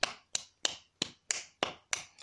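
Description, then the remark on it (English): One person claps hands seven times as applause in place of a sound effect, in a steady, fairly quick rhythm, each clap sharp and crisp with a short decay, with no talking. “I don't have sound effects yet, so this is my applause for August.”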